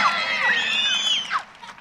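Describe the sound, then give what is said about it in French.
An audience cheers loudly together to applaud Jesus, many high-pitched voices whooping and shouting at once in an exuberant burst that lasts under two seconds before trailing off. “Est-ce qu'on peut applaudir Jésus 1, 2, 3. Ah, plus que ça.”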